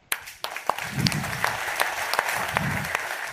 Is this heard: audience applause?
yes